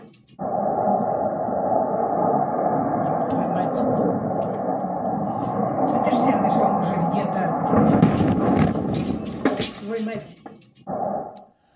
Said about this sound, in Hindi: खारकीव में ही आज रशिया ने यूक्रेन के एक तोपखाने को भी बम धमाके में उड़ा दिया और ऐसा बताया जा रहा है कि हमले के दौरान यहां यूक्रेन के कुछ सैनिक भी मौजूद थे